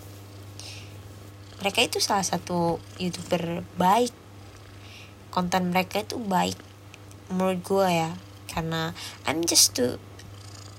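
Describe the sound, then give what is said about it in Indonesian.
A cat purrs steadily, a continuous low rumble that runs unbroken beneath a person talking in bursts throughout. “I just feel, hmm, ya ampun, sorry kucing gua ganggu.”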